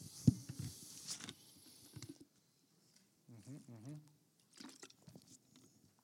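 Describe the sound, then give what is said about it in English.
Quiet sips and swallows of water with wet mouth clicks, broken by a brief voiced exhale midway, then a few more soft gulps. “So let that sink in while I drink some water.”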